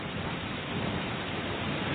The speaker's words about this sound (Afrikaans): 'n Storm oor die see kan nogal woes raak. Toe ek jonk was, was ek bang vir sulke storms. Maar nou weet ek dit trek verby. Na elke blits wat in die baai weer kaats, kraak die lig. En hou aan grom tot die wolke ophou skud.